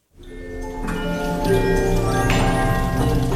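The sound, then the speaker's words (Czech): Many clocks chime and strike at once in the Bily Clocks house in Spillville, Iowa, USA, where composer Antonín Dvořák spent his 1893 holidays; their overlapping metallic bell tones ring and sustain into a dense wash, with fresh strikes landing every second or so over faint ticking. “Do sálu plného tikání, cinkotu a odbíjení času se podíval i náš zpravodaj ve Spojených státech”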